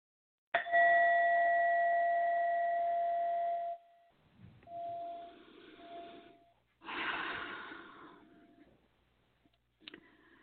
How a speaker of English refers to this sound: So um, I'm going to ring my bell, okay?